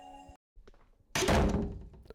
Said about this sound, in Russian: О нет. Кажется, дверь захлопнулась. Черт, мы попали в ловушку.